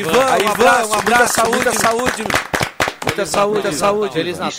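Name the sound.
applause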